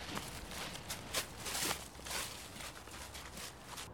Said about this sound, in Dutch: We lopen nu ook weer naar een beuk.